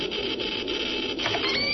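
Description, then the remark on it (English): A steady, loud hiss from a radiation detector reading background radiation at a surface camera site in Dallas runs unbroken, with faint crackling pulses and a thin high whine mixed into the noise. No one speaks. “The hissing is a reading of the background radiation registered by detectors at the site of this camera.”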